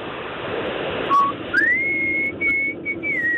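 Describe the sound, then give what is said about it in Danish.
A woman whistles an imitation of a bird song: a short low note, then a swoop up into long, high, steady tones broken by brief gaps, over a constant rushing, surf-like background hiss. “Men det er jo sjovt, fordi så snart at den der sang bliver fløjtet, så tænker jeg jo straks, at det er en mand”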